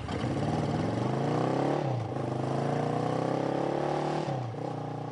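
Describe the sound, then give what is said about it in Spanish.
A small motorcycle taxi loaded with pots and dirty dishes revs up and pulls away, its pitch climbing, dropping at a gear shift, then rising again in a steady, loud drone. “Pero mi mototaxi estaba lleno de cazuelas y trastos sucios. Qué enojado me fui.”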